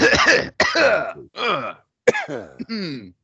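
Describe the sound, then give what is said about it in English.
Several rough, voiced bursts of coughing and throat clearing come in quick succession, fairly loud, separated by brief silences. “Get all the coughs out.”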